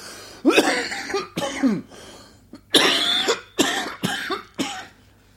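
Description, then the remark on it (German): A loud fit of harsh coughing into a microphone that was not switched off, six or seven sharp bursts in quick succession with brief gasping pauses between them, and no talking. “So hört sich das an, wenn ich das Mikro nicht ah, danke, ausschalte.”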